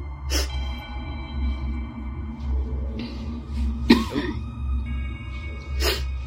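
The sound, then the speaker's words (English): Three sharp coughs spaced a couple of seconds apart, made to alert someone they're ready, over a steady low hum and faint background noise, with no talking. “Coughing to alert someone they're ready.”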